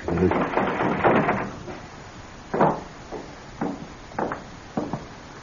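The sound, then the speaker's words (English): Four separate knocks on a back door, fairly loud, irregularly spaced about a second apart, after a stretch of muffled rustling and murmur at the start. “I, I go down the driveway and go in the back door.”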